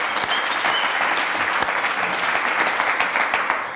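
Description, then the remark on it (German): A crowd claps steadily, a dense wash of many hands with sharp individual claps popping out, holding at an even loudness for a few seconds before easing slightly. “komm, lass mal einen Applaus geben für”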